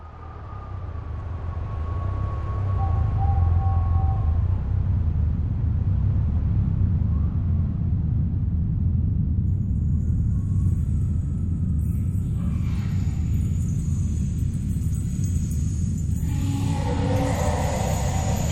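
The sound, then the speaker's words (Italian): A deep, heavy rumble of rock settling in a castle swells over the first couple of seconds and then holds steady and loud, with faint higher creaks and hissing surfacing toward the end. “La roccia subisce degli assestamenti.”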